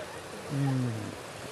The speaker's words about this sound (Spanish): sí, un canal hecho con, con posetas en desniveles que van creando como una especie de fuente larga, larga, larguísima, que arranca desde aquí donde hoy, en la Universidad de los Andes